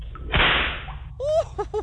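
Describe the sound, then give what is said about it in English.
A single sharp, loud crack of a long, well-braided cat o' nine tails whip snaps, trailing off in a brief hissing swish. A few short voiced cries follow moments later. “A long, vicious cat o' nine tails with a painful sting and a nasty loud crack.”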